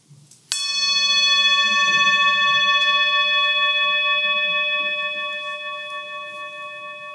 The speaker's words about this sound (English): And I started off by ringing this little bell, and I just like to do it, so I'm going to do it anyway to start us off.